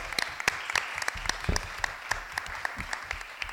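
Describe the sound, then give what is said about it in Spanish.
A crowd applauds for the speaker's father, a steady wash of many overlapping claps with a few sharper individual hits popping out. It holds at an even, fairly loud level throughout, with no voices. “para mí siempre ha sido una de las personas a las que he admirado así que un aplauso a este gran quería a mi padre”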